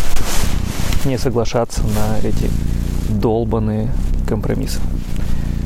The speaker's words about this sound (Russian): Если вы слышали звуки костра и вам казалось, что в микрофон мурчит кошка, то вам не казалось.